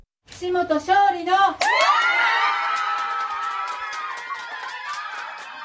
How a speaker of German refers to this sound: Jubel über den Wahlsieg von Satako Kishimoto.